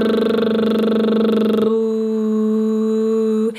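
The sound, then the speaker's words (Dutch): A sustained buzzing "brrr" lip trill, done as a vocal exercise, on a steady pitch, fluttering for about a second and a half before smoothing into a held tone that ends abruptly. “Wat we nu gaan doen, is die brr terugnemen. Brrr.”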